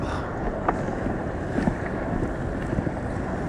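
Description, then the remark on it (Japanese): Steady rushing water and wind buffet the microphone, with broad churning swells and splashes of big sea waves, recorded while floating on a beach mat on the sea; no voices are heard. “波来たんで少々お待ちくださいねはい波でかい”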